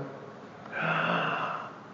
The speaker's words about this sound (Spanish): ¡Wow! E, esa, esa emoción te mete una te mete una cantidad de aire al pulmón de emoción, es vida.